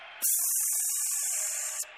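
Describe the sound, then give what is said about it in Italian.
A steady, loud hiss of air escaping from a deflating ball, starting abruptly and lasting about a second and a half before cutting off, with no talking over it. “Il pallone lo sgonfio.”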